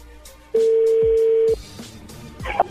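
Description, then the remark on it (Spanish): A telephone keypad tone sounds as a number is redialed for a radio program call: one loud, steady beep lasting about a second, followed by a few soft clicks and a short, higher beep. No one speaks. “A ver, márcala de nuevo, de una vez.”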